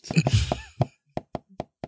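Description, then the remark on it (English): Knuckles tap on a door: a quick cluster of raps, then four sharp, evenly spaced knocks, with a brief vocal sound mixed into the opening taps. “I am once again rap tap tapping on the door.”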